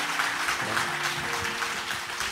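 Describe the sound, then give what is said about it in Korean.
Audience applause welcoming a missionary and his wife at a church's 29th anniversary service, a dense, steady wash of many hands clapping that holds at an even loudness for the whole clip, with a faint low hum underneath. “뜨겁게 우리 박수로 맞아 주시고요.”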